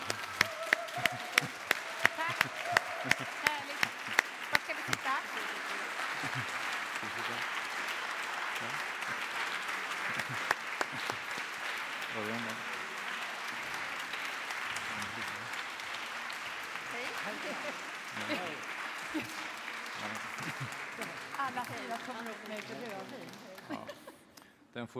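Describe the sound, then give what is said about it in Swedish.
A large theatre audience breaks into sustained applause for actors Lena Endre and Örjan Ramberg, dense clapping filling the space for about twenty-five seconds before fading out, with a few bright claps standing out early on. “Ja, det får bli en eh, extra applåd tror jag för Lena Endre och Örjan Ramberg.”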